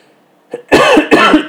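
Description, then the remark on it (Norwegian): A short burst of harsh coughing from a smoker, a small catch followed by two or three loud, rough coughs in quick succession, with no talking. “Når jeg hoster, tør hoste? Nei. Jeg røyker. Da får du hoste.”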